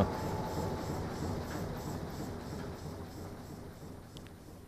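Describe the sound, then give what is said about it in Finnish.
A steady, rumbling clatter of a train rolling along the rails, heavy in the low end and continuous throughout, fading slightly toward the end with no voices. “Niin saapui sitten tämä sillä hetkellä maailman kuuluisin mies Kotkaan ja pujahti junaan.”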